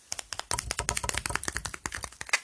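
Rapid, irregular tapping made on purpose, a dense stream of sharp little clicks like fingertips drumming on keys. It is soft and continues steadily for a couple of seconds with no voices.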